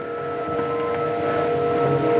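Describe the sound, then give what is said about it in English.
An eerie, sustained wail, thin and plaintive like a hungry newborn's cry, holds steady and fairly loud for a couple of seconds with no talking over it. “Almost like the wail of a newborn child that's hungry.”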